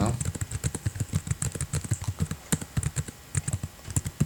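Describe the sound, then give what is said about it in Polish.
Rapid typing in a document on a laptop keyboard, a steady stream of crisp key clicks with irregular rhythm and occasional louder taps, heard alone without talking. “to może najpierw e, napiszemy.”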